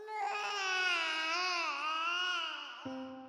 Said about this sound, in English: Then I became aware of a sound, a noise closer to a human infant in pain than anything I'd ever heard a cat make.